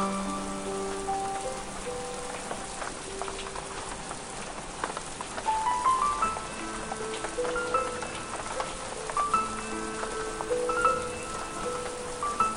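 Steady rain pours down onto hard surfaces, a dense continuous patter, while soft melodic instrumental notes ring out over it. No one speaks.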